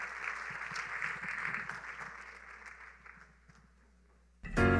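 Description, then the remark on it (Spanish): An audience applauds loudly to welcome a prophet, with dense, crackling claps that gradually thin and fade, then a sudden louder burst of sound cuts in at the very end. “Quiero que recibamos con un fuerte aplauso al profeta”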